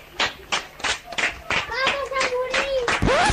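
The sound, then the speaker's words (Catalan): Steady, rhythmic hand clapping in the 8 o'clock tribute to health workers, about three claps per second, loud. Partway through, a boy's sustained tonal shout joins over the claps, ending in a rising cry. “Sí, és un nen que s'ha fet viral a les últimes hores a WhatsApp per trencar els aplaudiments de reconeixement als sanitaris, eh, aquell que es fa a les 8, amb un crit, jo diria que poc encertat.”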